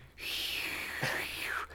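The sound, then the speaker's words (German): A person imitates high whistling wind with a breathy, hissing whoosh that holds a steady high pitch, wavers briefly in the middle, then slides downward before stopping. “Das ist jetzt so hoher Wind, der so pfeift, weißt du?”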